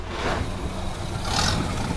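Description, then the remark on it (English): A 1920s car engine runs steadily, a continuous low rumble with a rougher, brighter surge near the end. No one speaks over it. “This 1920s car might actually break 10 miles an hour.”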